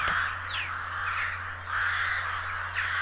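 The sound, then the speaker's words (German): A raven, beak wide open, caws at a fox in two long, harsh, drawn-out calls, one after the other, loud and rasping, over a faint steady low hum with no talking. “Am ähm, Rab haben all die Schmeicheleien so gut da, dass er den Schnabel weit aufgesperrt hat und er dem Fuchs etwas vorpfiffen hat.”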